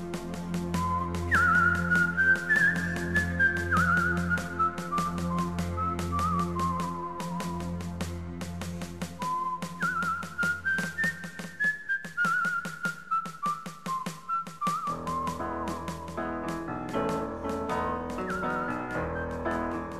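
A person whistles a slow, mournful melody in long descending phrases, clear and upfront, over a steady rhythmic instrumental backing with a low bass line throughout.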